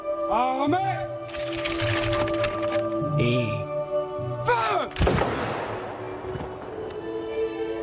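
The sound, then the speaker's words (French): A single loud, sharp volley of rifle fire from a firing squad of twelve soldiers executing Mata Hari at dawn in cold morning air cracks out partway through and rings off in a long echoing decay, following a stretch of voices and tonal sounds. “Des volutes de fumée bleutée montent depuis le canon des fusils dans l'air froid du matin.”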